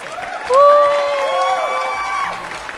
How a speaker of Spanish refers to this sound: Fuerte los aplausos.